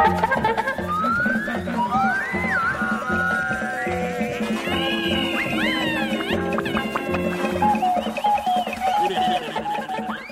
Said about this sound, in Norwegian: Nå skal vi høre ukas klipp. Skal bare spille en liten jingle der.